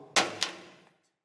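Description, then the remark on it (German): A smartphone drops onto the floor with a sharp clattering impact, a second hard knock as it bounces, then a brief fading rattle and one tiny tick before silence. No one speaks. “hoppla, auf den Boden gefallen.”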